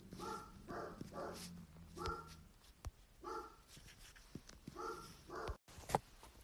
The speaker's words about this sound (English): Yep, oh, looks like we got to pause for a second because the dogs are going nuts.